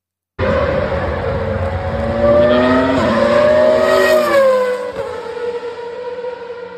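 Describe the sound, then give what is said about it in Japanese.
A screaming Renault V10 Formula One engine of that era, on a car bearing Nigel Mansell's number run as a memorial, roars at the trackside, recorded by former F1 driver Karun Chandhok; its pitch climbs steadily, briefly dips, then drops sharply before settling into a lower, sustained howl. No voices. “まあ、こんな感じでね、えー、これが当時のルノーですかね。ルノーの V10 エンジンということで、まあ、今のような環境性能とか、えー、そういうことを一切考えてない時代の、えー、まあ、エンジン音ですね。”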